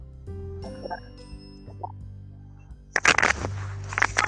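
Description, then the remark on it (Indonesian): A headset drops and clatters, a sudden burst of bright clinking and rattling after a few quiet taps, settling into scattered rustles and knocks over a low steady hum. “aduh headset aku jatuh”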